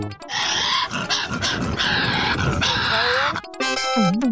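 A Tasmanian devil grunts and screeches in a loud, harsh, raspy stream for about three seconds, unbroken, before an abrupt switch to a different, tonal warbling sound at the end.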